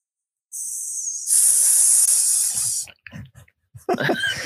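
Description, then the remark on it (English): A person imitates a snake with a loud, drawn-out hiss lasting about two seconds, then breaks off into short breathy laughs and a few voiced sounds. “Oh, so you kind of are like a snake.”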